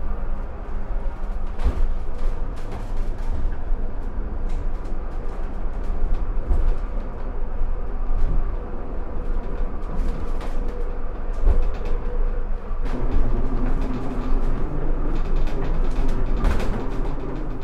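An old 1929 funicular railway car in Stuttgart rumbles steadily as it climbs steeply uphill toward the forest cemetery in the rain, with a constant low mechanical drone, occasional clanks and clicks from the track, and a shift in the engine tone partway through. No one speaks.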